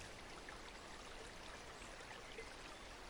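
Soft, continuous babbling of mountain spring water trickling over stones, a steady gentle burble with no pauses, fairly quiet, with no voices present.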